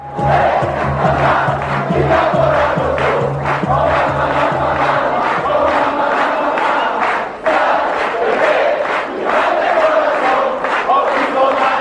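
A large stadium crowd of Napoli football fans chants Maradona's name in loud, rhythmic unison, the massed voices pulsing steadily and continuously, with a low droning hum underneath during the first half.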